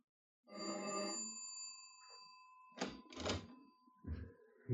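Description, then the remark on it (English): The doorbell of a third-floor apartment in Haven Mews, London, rings once with a bright, buzzing tone that lingers and fades, followed by a few heavy thuds like a door being handled. “It doesn't take long to race upstairs to a third floor apartment, ring the doorbell.”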